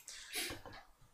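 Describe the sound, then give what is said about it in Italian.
A short splash of brandy being poured into glasses, a quick bubbly trickle lasting about a second, fairly quiet, with no voices over it. “vi allunga dei bicchieri con del brandy.”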